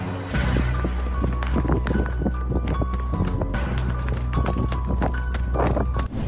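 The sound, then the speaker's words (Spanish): Hurried footsteps pound rapidly in a steady running rhythm over a low rumbling background, loud for several seconds without any talking. “Así es amigos, yo también saldría corriendo, ni mis papás me prohíben cosas, menos alguien más.”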